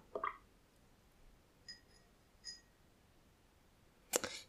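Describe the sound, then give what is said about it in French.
A few quiet splashy swishes and light taps of a paintbrush being rinsed of yellow paint in a water container, with a louder clack near the end, and no talking. “Ensuite, je nettoie mon pinceau dans l'eau.”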